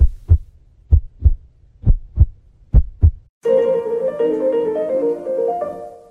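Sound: heartbeat sound effect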